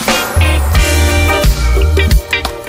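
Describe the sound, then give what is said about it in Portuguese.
A song, two songs joined into one, plays loudly, with a deep pulsing bassline, sustained melodic tones and a few punchy drum hits marking the beat. No one talks over it. “Mano, é muito bom essa música.”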